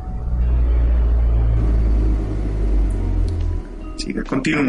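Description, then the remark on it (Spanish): Deep engine rumble from cars passing outside, loud and continuous for several seconds before easing off, with a voice briefly starting up near the end. “los malditos autos.”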